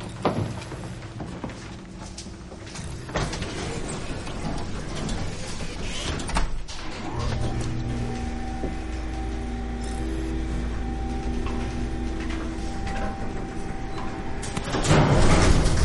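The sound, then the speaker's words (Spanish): Elevator doors in a building slide with a mechanical rumble as people enter, then the elevator runs with a steady low motor hum and faint tonal whine, ending with a brief louder clatter. “Una joven y una niña de raza negra entran en el ascensor.”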